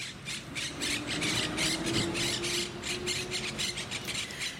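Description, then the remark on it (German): Monk parakeet chicks, young parrots sitting together in the nest, call in a dense, continuous chorus of rapid, raspy squawks and squeals, fairly loud, with no voices. “Jetzt hören wir kleinen Papageien zu, die zusammen im Nest sitzen.”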